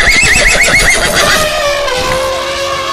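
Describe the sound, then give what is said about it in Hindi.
A horse, Chetak, whinnies loudly in a battle, raising its two forelegs into the air. Its shrill, quavering call rises and falls in rapid pulses before trailing off into a lower, steady tone. No one speaks. “इनी बीच चेतक एक बहादुर सैनिक रे भांति आपनो पराक्रम दिखायो और अपना दो ही पग हवा में उछालता शत्रु सेनापति रे हाथी रे सूंड माते रख दिया”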